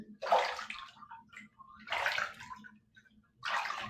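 Water sloshes and splashes in a bathtub in three distinct bursts, fairly loud, with short quiet gaps between them and no voices.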